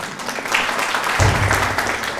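A crowd claps in a steady, dense patter that stays fairly loud throughout, with a low rumble swelling partway through and no clear speech over it.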